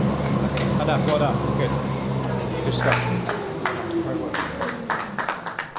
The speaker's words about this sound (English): That is the sound of a world class distance runner finishing up a treadmill test that, at its height, had him running at about five minutes per mile pace, all under the watchful eyes of several scientists, biomechanists, and coaches